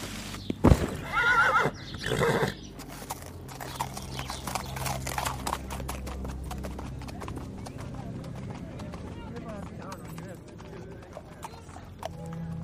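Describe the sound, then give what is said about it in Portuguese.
A horse gives a loud whinny in the first seconds, followed by a steady, rhythmic clip-clop of hooves that continues at an even pace to the end. “Vai, eu te ajudo a colocar ela em cima do cavalo.”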